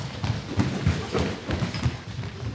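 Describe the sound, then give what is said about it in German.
Quick, irregular footsteps patter and thud across a floor as several girls run slow warm-up laps on hobby horses, a loose trotting rhythm with light taps, with faint background chatter. “Dann könnt ihr erst noch ein bisschen bummelig eine Runde für euch rumreiten, wie ihr wollt.”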